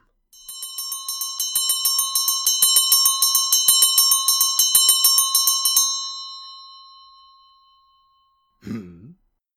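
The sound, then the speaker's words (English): A disused bell hanging in a room swings and rings rapidly and steadily for several seconds, its metallic clangs repeating in a fast rhythm before fading out, followed by a brief low throat-clearing grunt. “as Scrooge looked, he saw the bell begin to swing”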